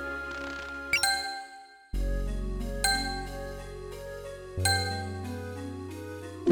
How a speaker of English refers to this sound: Current sound is a checkpoint.